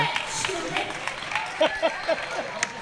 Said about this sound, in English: Yeah, crowd's cheering for